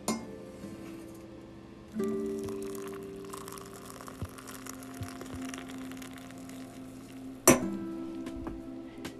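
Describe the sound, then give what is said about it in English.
A single bright clink of coffee cups knocking together in a toast, sharp, with a faint ringing tail over a steady low hum and quiet background. “But anyway, uh, coffee cheers to you all, my friends.”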